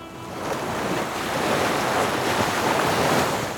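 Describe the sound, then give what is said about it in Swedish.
Ocean waves surge and wash in a steady, rushing roar, swelling gradually louder and then easing off, with a faint windy hiss and no voices. “Runt Pangeas landmassa svallade sedan uroceanen Pantalassa, omnämns också ibland som Paleo-stillahavet lite som Stilla havet men mycket större.”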